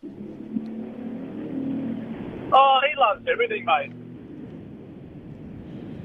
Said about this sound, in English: Sound of the motor revving in the background.